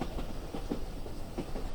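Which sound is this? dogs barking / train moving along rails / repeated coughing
train moving along rails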